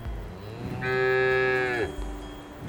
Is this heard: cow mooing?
yes